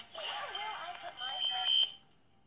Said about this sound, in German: Ähm, ja, es gab gerade eine Nachricht vom Handy, aber das interessiert keinen.